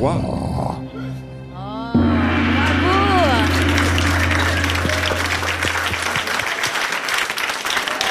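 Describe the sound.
An audience breaks into steady applause for the performers providing the sound accompaniment, a dense crackle of many hands that swells after a brief stretch of voice and continues loudly, with some vocal and tonal sounds mixed in early on.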